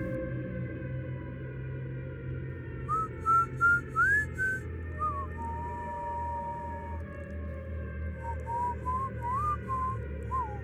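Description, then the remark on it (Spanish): Someone approaching the door of a house whistles a slow, wavering melody, heard from a distance over a steady low background rumble, with a couple of brief metallic jingling bursts from a keychain mixed in. “escuchó a lo lejos cómo alguien se acercaba a la puerta de su casa, haciendo tintinear un llavero y silbando la última canción que escuchó en la radio,”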